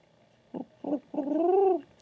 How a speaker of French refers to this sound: C'est le jingle pigeon. Ah, le jingle pigeon